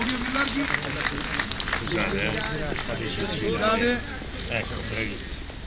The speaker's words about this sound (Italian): Ecco, questo era l'applauso della piazza.